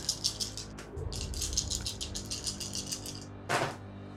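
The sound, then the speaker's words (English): A handful of seven six-sided dice, rolled for damage, clatter and rattle across a hard surface in rapid, uneven clicks, with a low rumble underneath, then one final sharp clack near the end. No one speaks. “Roll for damage. That's 7d6”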